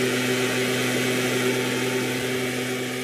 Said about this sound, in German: Ausgerüstet mit Besen und Haken und mit lauten Rucksäcken. Den Laubbläsern.